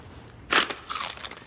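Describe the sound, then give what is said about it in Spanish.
A loud, crisp crunch of someone biting into celery in a hotel, followed by a few quieter crackling chews. No voices. “En el hotel, Ben come apio mientras Bobby está al teléfono.”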